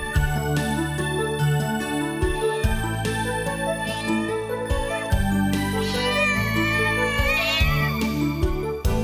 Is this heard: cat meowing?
yes